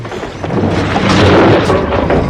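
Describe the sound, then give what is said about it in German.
A loud, sustained rumbling crash with dense crackling and roaring noise, swelling in the middle and staying heavy throughout, as the roofs of a dwelling house and a barn collapse in a blazing fire. “Doch als sie sie erreichten, stürzten die Dächer des Wohnhauses und der Scheune krachend zusammen.”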